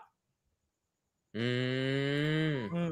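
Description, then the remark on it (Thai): A single loud, drawn-out yowl from a house cat in heat, fighting or mating, rises out of near silence, holding a low, strained wail for over a second before dipping in pitch at the end. “ผมได้ยินแมวบ้านคุณกัดกันหรือแมวบ้านคุณปี้กันสักอย่างเนี่ยนะครับ คุณดูแลแมวด้วยครับผม มันกำลังติดสัตว์อยู่”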